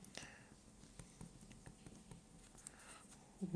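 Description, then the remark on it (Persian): Quiet scratching of a pen moving across paper in short, irregular strokes as someone writes down a plan for themselves, with faint rustles between them and a brief soft sound at the end. “الان دارم مینویسمش رو کاغذ که این سازوکار رو واسه خودم تعیین کنم”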